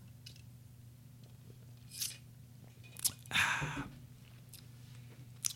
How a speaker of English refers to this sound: Ooh, I'm going to take a sip, a sip of this before because I, I didn't get ready for that one, just so you guys know.